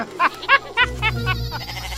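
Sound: sheep bleating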